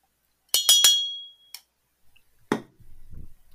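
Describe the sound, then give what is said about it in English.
Bells ring out in three quick, bright strikes, their metallic tone briefly hanging in the air, followed by a couple of lighter clinks and a low rumble. No one speaks. “you hear the, the bells go off and and you come.”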